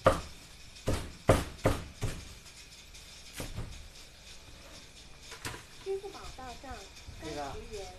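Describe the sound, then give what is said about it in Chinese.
Sharp, heavy cleaver chops strike a duck-cutting board in a roast duck shop as roast duck is cut up, a quick irregular burst of blows followed by a few sparser hits. Voices talk faintly near the end. “一个烤鸭转炉，一个切鸭子的案板。”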